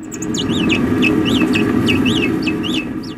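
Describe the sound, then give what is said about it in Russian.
Naked mole rats vocalizing: a quick, uneven series of short, high-pitched chirps and squeaks, about a dozen in all, over a steady low rumbling background noise. “Вот послушайте два разных разговора землекопов.”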